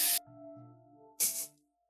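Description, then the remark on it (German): Two sharp sneezes, each a bursting hissy 'choo', with a drawn-out voiced breath in between as the second one builds up; no talking. “Gesundheit.”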